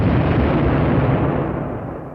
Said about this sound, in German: als dieser Teekessel explodiert, als du den Raum betrittst.